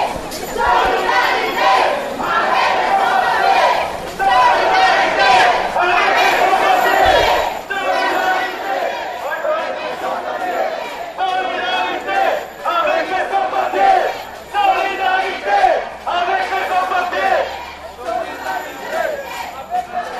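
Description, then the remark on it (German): A large street demonstration crowd of undocumented foreigners without papers (sans papiers) chants loudly and rhythmically in repeated bursts, voices rising and falling together for the whole stretch, with shouting and crowd noise underneath. “Какая демонстрация это? Почему люди есть на улицу?”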